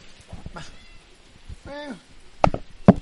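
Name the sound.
cat meowing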